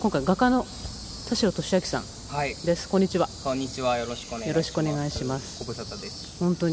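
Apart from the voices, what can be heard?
cicadas singing outdoors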